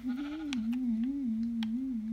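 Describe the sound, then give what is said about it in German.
A video game sheep, the player's own, bleats in one long, wavering note with a steady mid pitch, fairly loud and alone, as the player wants wool from it. A few short clicks sound over it. “Ich habe ich hab ja ein Schaf, also ja.”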